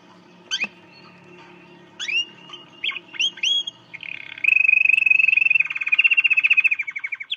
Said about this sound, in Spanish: Todavía no había pasado al sueño cuando oí en mí el canto de un pajarito.